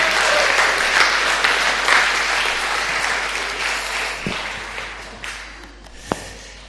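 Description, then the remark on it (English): A crowd applauds a male speaker loudly and steadily with dense, continuous clapping that gradually thins and fades toward the end, with a few sharper isolated claps standing out as it dies down. “But uh, can we give him a great big cheer?”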